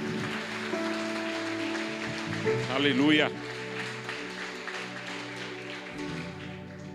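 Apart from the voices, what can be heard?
audience applause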